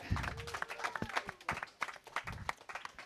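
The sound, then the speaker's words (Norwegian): An audience at Arendalsuka in Arendal, Norway, applauds the youth party debaters: a dense patter of overlapping hand claps that holds steady and moderately loud for the whole three seconds. “Klapp for våre debattanter.”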